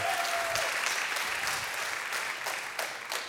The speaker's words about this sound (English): Give them a hand.